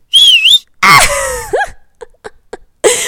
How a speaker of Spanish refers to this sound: Se lo juro que esa no fui yo, fue un efecto. Ahora toda esa camionera así chifla feo.